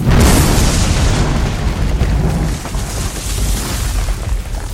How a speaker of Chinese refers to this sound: 榴弹打中了铁皮工厂里面那些装满化学药品的液化气罐子，结果发生了爆炸。